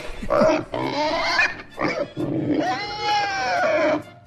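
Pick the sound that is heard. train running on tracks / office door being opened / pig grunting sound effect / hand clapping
pig grunting sound effect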